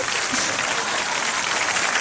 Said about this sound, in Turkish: Süperdiniz bu alkışlar size sevgili dinleyenler. Çok sağ olun çok teşekkür ederiz.